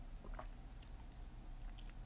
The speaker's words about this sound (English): Sips tea, literally. I'm literally drinking this nasty ass tea.